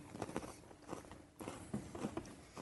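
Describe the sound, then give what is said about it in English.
Crunching and chewing of a cookie, a series of irregular crisp bites and mouth sounds with a short pause in the middle, no talking. “I'm going to take one of the cookies off and I'm going to eat it”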